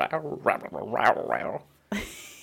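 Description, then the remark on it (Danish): A voice imitates a growling stomach with about one and a half seconds of rumbling, warbling vocal gurgles, moderately loud, followed by a short pause and a breathy burst. “høre min mave, den sagde...”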